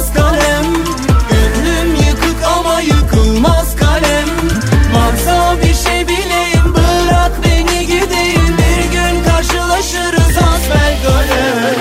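A loud, full Turkish pop duet instrumental plays throughout, with a steady punchy drum beat, bass, and bright melodic layers, and no voices.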